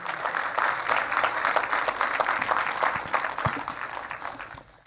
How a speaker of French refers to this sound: Est-ce qu'on peut donner une main d'applaudissement à ce Dieu ce matin?